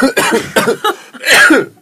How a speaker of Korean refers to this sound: 내가 이런 잔기침하는 연기가 들었어요 왜냐면 이제 야 일어 안 일어나 이럴 수는 없으니까